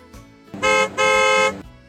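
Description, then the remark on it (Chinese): A school bus horn honks twice, loud and steady-toned: a short blast followed after a brief gap by a longer one, with no voices, as the school bus arrives at the kindergarten to take children to summer camp. “长颈鹿姐姐开来了校车”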